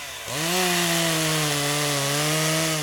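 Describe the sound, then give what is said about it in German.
A chainsaw roars to life after a brief moment and holds a loud, steady buzzing drone in a forest, its pitch sagging slightly as it runs. No voices. “Motor sagen.”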